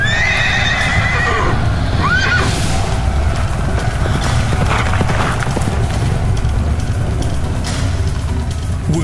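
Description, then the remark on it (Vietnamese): A horse whinnies with a rising, wavering cry near the start, then hooves pound in a fast, rumbling gallop that stays loud and dense throughout as a young man turns his horse and flees, with no voices. “Chàng thanh niên cũng quay ngựa bỏ chạy”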